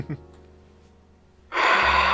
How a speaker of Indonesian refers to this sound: Bentar bang, gue ambil napas dulu ya. Tahan napas, yeah.